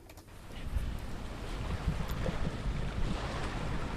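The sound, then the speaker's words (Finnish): A boat ploughs through heavy sea swell in the Gulf of Finland, just before the Tammisaari National Park area, with water coming in, a continuous low rumbling wash of water and gusting wind buffeting the microphone, fairly loud, with no voices. “siinä oli kunnon maininki ja tämä vene meni”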